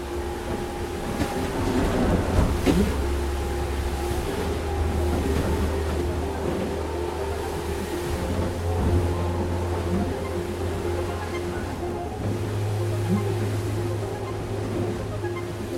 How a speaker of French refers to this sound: C'est très bruyant d'ailleurs dans le bateau. Oui, c'est très bruyant. On entend le, bruit de, l'eau sur, les coques